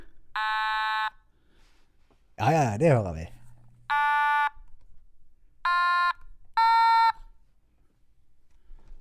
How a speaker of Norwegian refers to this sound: Det hørte du. så, så, du har fått deg et, et, et, slags instrument, du altså? Jeg, har fått meg et lite instrument. Og det kalles for automatone.